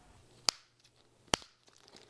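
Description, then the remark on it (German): Two sharp, crisp snips of scissors cutting through a piece of wire about 30 to 40 centimetres long, spaced nearly a second apart, each a brief bright click against an otherwise quiet background with no talking. “Ja, den Draht kann man auch gut mit der Schere schneiden.”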